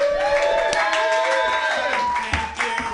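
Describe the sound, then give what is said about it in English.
A comedy show audience claps and cheers together for the next comedian, a steady wash of hand claps with whoops and shouting voices rising over it, fairly loud throughout. “Clap your hands and laugh hysterically for Robbie Goodwin.”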